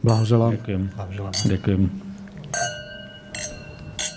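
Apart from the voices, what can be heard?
glasses clinking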